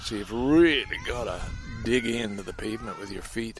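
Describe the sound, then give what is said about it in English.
High-pitched squeals and cries of small children playing at a daycare center, rising and falling, mixed in under a man talking steadily in the foreground. “You can hear some children playing in the background, just little ones.”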